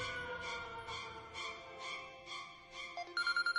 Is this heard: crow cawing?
no